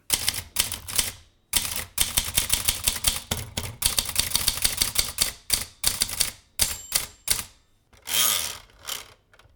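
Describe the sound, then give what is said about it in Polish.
Rapid mechanical keystrokes on a Maritza M22 typewriter, a mid-range model made in Warsaw and bought in March 1971, clatter in irregular bursts, with brief pauses and a longer whirring carriage movement near the end; no voices are heard. “Maszyna, którą posiadam, to Maritza M22. Została ona wyprodukowana w warszawskim przedsiębiorstwie obrotu maszynami i urządzeniami biurowymi maszyny biurowe.”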